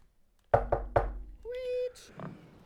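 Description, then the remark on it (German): Three sharp, loud knocks on a door in quick succession, followed by a short drawn-out vocal sound and a faint murmur afterward. “Der Dialog heißt Klopf, Klopf.”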